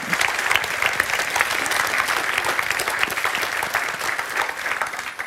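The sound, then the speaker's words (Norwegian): An audience in a hall applauds, giving a big clap to Jesus, a dense, steady wash of many hands clapping, holding strong for several seconds with no one speaking over it. “Give a big clap to Jesus.”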